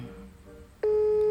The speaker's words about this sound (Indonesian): oke okay, berdering ayo dong berdering